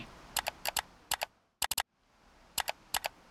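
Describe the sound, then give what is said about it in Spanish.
Sharp computer mouse clicks arrive in quick pairs and a tight triple burst, crisp against a faint background hush, with no voices present. “los usuarios de Internet crearon curiosidad por esa nueva sugerencia en sus búsquedas en línea y sucumbieron en el acto más significativo de la era moderna, un clic.”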